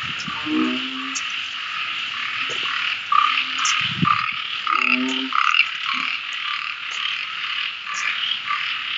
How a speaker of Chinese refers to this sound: 走吧，我们一路走就能听到好多好多青蛙的叫声，越来越响。它们现在是大合唱，听。